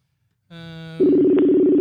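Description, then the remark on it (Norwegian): A telephone call being placed: a buzzy electronic tone starts, then gives way to a louder, steady tone that holds for nearly a second. No voices are present. “Så da ringer vi rett og slett”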